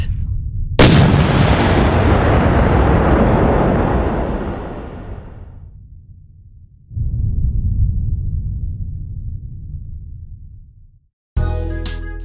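A loud, sharp explosion bursts out and rolls into a long, fading rumble, followed by a second deep, low boom that rumbles for several seconds before cutting off.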